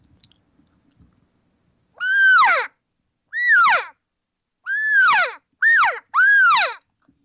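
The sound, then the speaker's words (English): A series of five loud, nasal, mewing squeals in quick succession, each with a rising-then-falling pitch, made by a call imitating cow elk chattering regathering calls, with quiet clicks at the start. “here's the sound you're going to hear from a cow, and even a bull can do it, but most of the time it's the cows that start chattering.”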